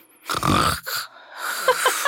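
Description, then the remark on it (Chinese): A voice imitates the loud snoring of someone dozing off in class: one harsh, rumbling, rasping burst lasting about half a second, followed by quieter breathy noises and faint short clicks. “你在课堂上打瞌睡还打呼那么大声”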